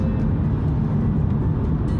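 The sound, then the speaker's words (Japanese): Steady low rumble of a car's interior while driving, a continuous droning road noise that fills the low end with no voices present. “多分ほとんどの収録車でやってるんであこれ車だなって分かると思いますけど今運転中です”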